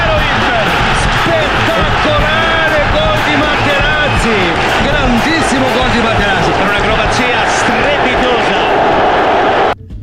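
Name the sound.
stadium crowd roaring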